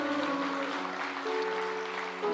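A crowd claps steadily, applauding the Lord, a dense wash of applause mixed with sustained musical tones humming underneath, loud and continuous throughout the short stretch.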